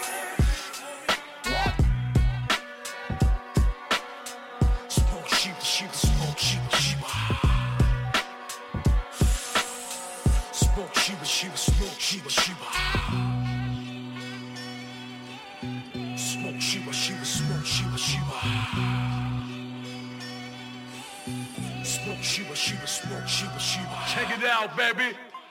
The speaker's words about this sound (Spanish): Escuchamos … del artista …, producido por ….